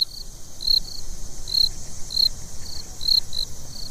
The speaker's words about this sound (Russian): Некоторые звуки мы, конечно, узнаем сразу. Вот поет одинокий сверчок